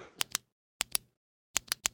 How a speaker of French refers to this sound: écoute ce que je fais avec mon stylo. Écoute là.